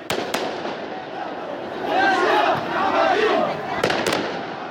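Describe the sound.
A large crowd of protesters with flags and sticks in the centre of La Paz chants and shouts together in a steady roar, voices swelling in the middle, while sharp bangs like firecrackers pop at the start and near the end.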